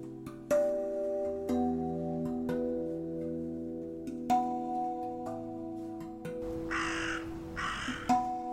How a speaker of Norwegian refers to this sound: Og Odins blå-svarte ravner vokter over stedet, og med skrik som varsler inntrengere.